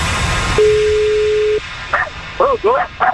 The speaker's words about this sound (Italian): Eh, ma puoi abbassare il volume del cane?